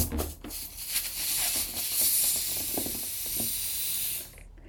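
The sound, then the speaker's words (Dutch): A steady hiss of air escaping from a stretched balloon neck, held open at the bottom by hand, lasting about four seconds with slight flutters before cutting off abruptly. “En ik pak het onderste van die ballon vast en ik ga hem nu open houden.”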